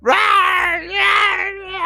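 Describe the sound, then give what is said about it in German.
A voice imitates the shrill, wavering robotic screams of dozens of robot gifts running off, one sustained cry rising and falling over about two seconds, loud, with a brief dip midway. “schreien die Geschenke. Robotergeschenke genau.”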